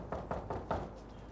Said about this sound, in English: After knocking on both the front and the back door, the officers received no response.